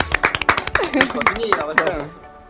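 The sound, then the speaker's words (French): A few studio guests clap in quick, uneven bursts of sharp claps after a quiz, while voices and laughter rise over the applause before it thins out at the end. “Bravo à s'applaudir.”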